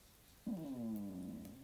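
A dog lets out one drawn-out, tonal whine or moan lasting about a second, fairly loud, with no talking.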